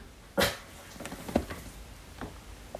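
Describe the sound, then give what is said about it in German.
A single sharp dog bark rings out near the start, followed by a few fainter, scattered yips or thumps amid otherwise quiet surroundings, with no talking. “Mein Hund musste ja auch noch erst Senf dazugeben.”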